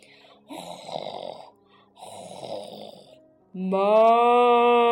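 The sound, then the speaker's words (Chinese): A voice imitates a cow snoring in a barn at night: two rasping, breathy snore sounds in a slow rhythm, then a louder, sustained low moo-like tone that holds steady to the end. “奶牛在打鼾呢”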